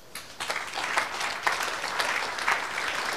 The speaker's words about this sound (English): can you put your hands together and celebrate E Church?